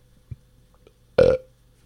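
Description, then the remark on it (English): A single loud, throaty, resonant burp erupts near the end after a brief faint click, with quiet background otherwise and no talking. “and we're going to um, see that burp.”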